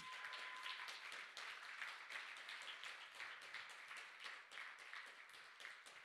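A crowd applauds steadily for about six seconds to welcome a young man up to speak, many hands clapping in a dense, even wash of sound with no voices rising above it.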